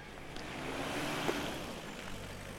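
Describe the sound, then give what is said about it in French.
A small river flowing with a steady, continuous rush of water, even in level throughout, with no voices, heard while walking alongside it through countryside pastures under a clear blue sky, on a walking stage toward Château-Vilain. “Alors là, je longe une petite rivière.”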